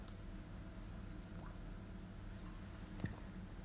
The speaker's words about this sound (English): Let me just take a little sip.